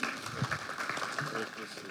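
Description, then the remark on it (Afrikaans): A crowd at an Afrikaans church gathering gives the others a round of applause, with steady, dense clapping that fills the whole two seconds at an even level, with a few voices murmuring faintly underneath. “Kom ons gee vir die ander 'n hande klap.”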